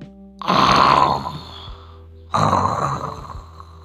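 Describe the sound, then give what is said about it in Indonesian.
Two deep, rumbling snores from a soundly sleeping lion, each a broad rasping swell that fades slowly, the second following after a short pause. Loud, with no voices. “Di siang hari, ada seekor singa sedang tertidur dengan pulas.”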